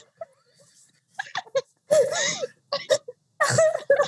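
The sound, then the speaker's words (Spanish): A person cries and whimpers in shaky, breathy bursts, with wavering high-pitched sobs and sharp intakes of breath between short pauses, fairly loud. “Y solo le puso llorando, sigo llorando.”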